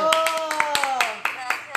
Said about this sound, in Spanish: Un aplauso a nuestra querida